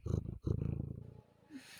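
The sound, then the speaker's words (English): Chewy the cat purrs loudly in two strong rumbling bursts directly in front of the microphone, then the purr softens and ends with a brief sniffing rustle as he sniffs the microphone. “that was a very very loud purr by Chewy.”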